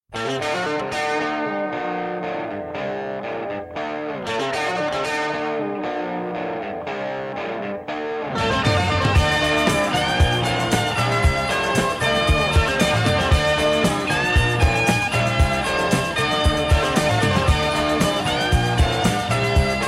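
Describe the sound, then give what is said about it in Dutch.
A distorted electric guitar plays the opening guitar part of a rock song, a busy, effects-laden part that grows into a fuller, louder rock arrangement about halfway through, with dense driving texture and no voices. “De, laat, de virtuoos zijn werk doen, gitaar. Dan beginnen we gewoon aan het begin.”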